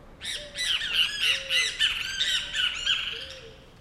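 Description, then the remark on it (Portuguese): Great kiskadees give a rapid, continuous series of harsh, buzzy squawking calls, loud and agitated, one burst tumbling after another for several seconds with no talking. “Bem, te visa aí, aparentemente não muito felizes com a nossa presença.”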